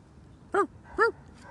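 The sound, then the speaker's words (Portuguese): A dog barks twice, two short, sharp yelps about half a second apart, standing out clearly over a quiet background hum. “Adora quando o cachorro late.”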